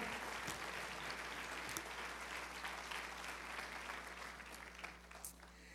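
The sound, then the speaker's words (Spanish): A church audience applauds to the Lord steadily for several seconds after a prayer, a dense wash of many hands clapping at a consistent level that eases slightly toward the end, with no one speaking over it. “Y toda la iglesia da un fuerte aplauso al Señor con todo el corazón.”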